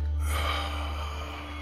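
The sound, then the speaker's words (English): A single long, deep exhale, a breathy rush of air that starts strong and slowly tapers off over a second or so, with no talking, as part of a relaxation breathing exercise. “So, breathing in and breathing out.”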